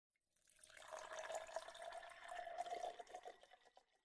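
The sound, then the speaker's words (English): Whiskey pours steadily into a glass for about three seconds, a gurgling stream with a rising tone as it fills, fairly quiet, with no talking. “So I'm going to go ahead and crack open my old medley.”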